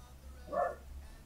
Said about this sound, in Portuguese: Tem um cachorrinho aí querendo participar é, hoje também.